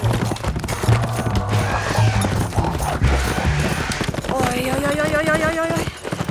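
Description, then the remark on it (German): Loud, rapid hoofbeats of a galloping ridden horse pound steadily throughout, continuous, as the rider rides into a raging stream, with voices shouting over the drumming hooves near the end. “Reitet einfach in den reißenden Bach, der Trottel.”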